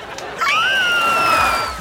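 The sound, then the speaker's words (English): A group of people lets out a loud, sustained excited scream together, one high-pitched voice rising above the rest and holding the note for over a second before trailing off. “I'm so excited. I could scream. Want to do it with me?”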